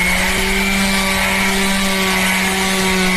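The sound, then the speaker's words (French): An electric sander runs steadily, a loud continuous motor whine over a rough, hissing grind that holds at the same pitch and volume throughout, with no talking. “Ah, euh, c'est pas un truc pour genre pour poncer, mais Exactement, c'est une ponceuse électrique, bien trouvé.”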